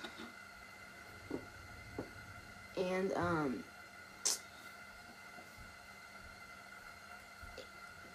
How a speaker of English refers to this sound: if you hear that noise in the background, that's my my, my fireplace. This this sounds not nice. I think, and it and it feels nice too.